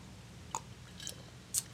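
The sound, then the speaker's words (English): Someone sips Fiji bottled water: three soft, wet mouth clicks and gulps spaced about half a second apart over a quiet low hum, with no talking. “Sorry if y'all hear uh, my water. I'm drinking uh, some Fiji tonight, trying to uh, cut back on Red Bulls and soda.”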